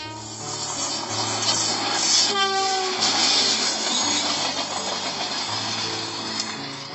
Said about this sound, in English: Oh yes, it is a train. And name of this train is Good Morning Train. This good morning train has come to say hello to you all.